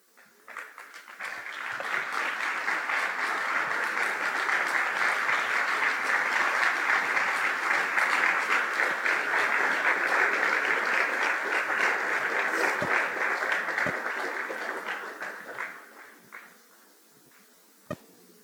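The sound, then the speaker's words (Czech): Sustained audience applause, a dense crackle of many hands clapping that swells quickly, holds steady for about fifteen seconds, then fades out, ending with a couple of stray claps. “Přátelé, děkuji za důvěru nebo aspoň za soucit vyjádřený uh, vaším potleskem.”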